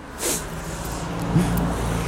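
Steady roar of traffic on a busy road along the Rhine, with cars rushing past fast and a brief hissing whoosh near the start, loud and continuous throughout.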